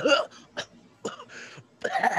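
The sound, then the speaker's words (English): A voice imitates choking and coughing: a series of harsh, broken hacking bursts and strained gasps, fairly loud, ending in a longer raspy retching cough. “you cough up uh you cough up like 50 no you cough up 50 swedish fish”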